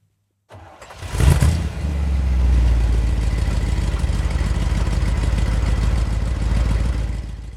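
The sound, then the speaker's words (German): A combustion engine cranks and fires up with a brief loud rev, then settles into a steady, low rumbling idle that continues to the end. No one speaks. “diese Woche hat die EU auch das Aus für den Verbrennungsmotor beschlossen, also Aus für diese Motorengeräusche, beziehungsweise das fast aus, oder?”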